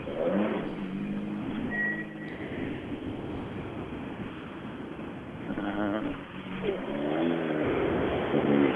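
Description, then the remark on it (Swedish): Loud rally car engines rev continuously at the finish of a rally stage, their growling tones rising and falling as several cars idle and accelerate at once, with a brief hesitant murmur from a voice. “Det är bilar överallt.”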